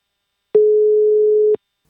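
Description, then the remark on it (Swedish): A single telephone ringing tone, one steady mid-pitched electronic beep lasting about a second, loud and clean, with a faint click at start and end and silence around it, from a call being placed to Japan. “vi ringer till eh, Dan i Japan”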